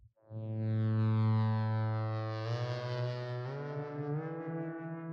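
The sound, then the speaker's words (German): A sustained synthesizer tone from the Animoog Z app, played on an iPhone 12's virtual keyboard, with rich, buzzy harmonics holds a low note, then steps upward in pitch partway through, the timbre brightening and shifting as it plays alone at steady volume. “Die ist gar nicht alt, die haben sie jetzt modernisiert und ich wollte jetzt die neue Version, nämlich den Animog Z, den Animog Z cool. spielen.”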